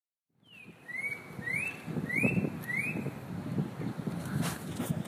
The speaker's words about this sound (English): And w- w- what are we listening to right now? We're listening to is Spot Breasted Oriole, Your Life Bird, You Lucky Sucker, You.